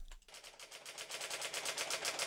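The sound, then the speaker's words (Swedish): Typewriter keys clack in a rapid, steady stream of sharp taps, continuing without pause for a couple of seconds with no one talking. “Eh, en skrivmaskin. Ja!”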